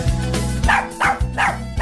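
A dog, Shade, barks several times in quick succession, loud, with short gaps between the sharp barks and a low steady background tone running underneath.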